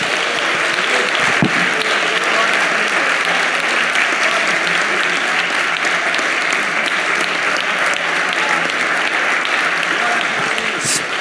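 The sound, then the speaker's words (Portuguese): A church audience applauds the word of God, a dense, loud wash of many hands clapping that holds at an even level for the whole stretch without pausing. “Nós estamos aplaudindo a tua palavra, Deus.”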